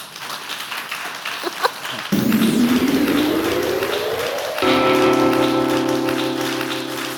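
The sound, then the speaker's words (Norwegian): Steady, moderate clapping from a live audience at the God natt Oslo festival, a dense crackling patter that carries on as a rising tone and then sustained musical chords come in over it. “Og så starter vi med en liten, eh, skal vi si, moderat, men vennlig og vedvarende applaus.”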